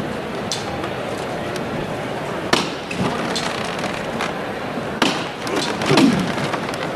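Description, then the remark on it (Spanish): Three sharp, hard hammer knocks from the foreman of the Hermandad de la Sagrada Cena procession float, signalling the bearers to lift it, ring out a couple of seconds apart, cutting through a steady murmur of crowd noise. “El capataz que le ha pedido a los costaleros que se coloquen ya en el palo porque va a dar los tres golpes de martillo.”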